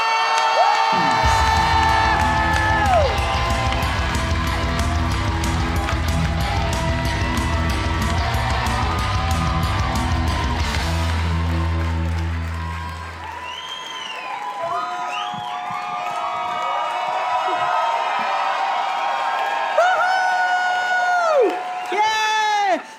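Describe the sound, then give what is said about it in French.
A live crowd at a Gong Show at Club Soda roars with sustained cheering, high whoops and shouts for a contestant over a low droning tone, the din staying loud throughout with scattered individual yells rising above it. “Mesdames et messieurs, donnez tout ce que vous avez pour”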